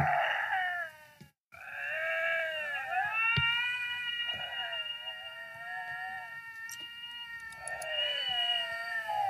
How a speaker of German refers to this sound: Weißt du, wie es, weißt du, wie es klingt, wenn sich zwei Luchse in der Wildnis begegnen? Nein. Es klingt so.